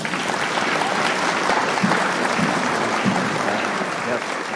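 Steady, sustained applause from an audience welcoming a speaker who is coming up to talk, a dense wash of clapping hands at a constant level for several seconds, with no voices standing out.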